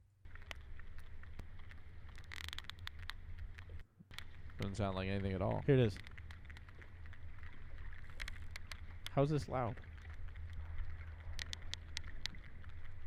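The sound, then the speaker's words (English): Sperm whale clicks: irregular, sharp cracking pops scattered over a steady low underwater rumble, fairly faint, with people briefly talking over them twice. “what is the loudest animal on the earth? Maybe it's think water. They'll give you a hint with that. Whale. A sperm whale.”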